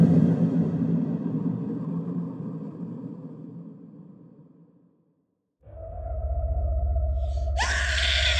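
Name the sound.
woman screaming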